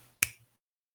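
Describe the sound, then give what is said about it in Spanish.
A single crisp finger snap, fairly loud, with a sharp bright attack that fades quickly into silence. “Y, hago con un chasqueo de, de dedos.”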